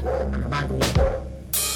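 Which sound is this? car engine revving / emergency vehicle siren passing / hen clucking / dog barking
dog barking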